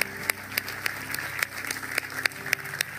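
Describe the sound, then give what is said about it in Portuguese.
A church audience applauds the people who have just decided to follow Jesus, a dense wash of many hands clapping with a few sharper claps standing out at regular intervals, over a low sustained hum. “Igreja, será que podemos dar uma salva de palmas enorme a todas as pessoas que acabaram de tomar a decisão de seguir Jesus?”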